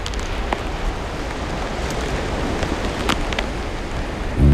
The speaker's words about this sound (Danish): over havet vender regnen hjem. Bølgerne har perforeret stranden med små kratere.